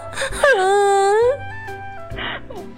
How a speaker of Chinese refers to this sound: 他在绿色的菩提树下不停的抽泣。